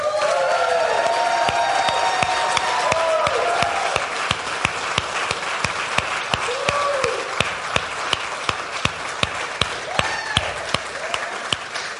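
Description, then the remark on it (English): A crowd applauds loudly and steadily for a couple being honoured, with whoops and cheers rising above the clapping; toward the end the applause thins into sharper, scattered individual claps. “I want you to applaud, hoot, holler, whatever, roll on the floor, I don't care, whatever.”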